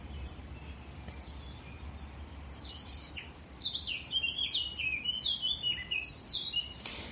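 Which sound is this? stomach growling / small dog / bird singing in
bird singing in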